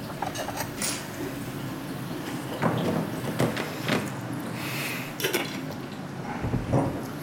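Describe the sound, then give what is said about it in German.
Bowls clatter and clink as they are lifted out of a household kitchen cupboard, with a few sharp knocks and a door sliding, amid a steady hiss; small bowls are being fetched while cooking. “Wo, haben denn, wo hat man denn Schüsseln so in so einem Haushalt?”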